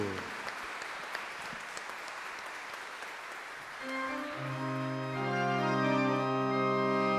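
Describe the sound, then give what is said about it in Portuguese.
An audience claps in a steady, dense round of applause for Our Lady Aparecida, Saint Joseph and Jesus Christ that gradually thins out, as sustained keyboard chords come in partway through and swell louder beneath the last scattered claps. “E mais uma vez, uma bonita salva de palmas à Nossa Senhora, a Mãe Aparecida, a São José, esposo de Maria, e a Jesus Cristo.”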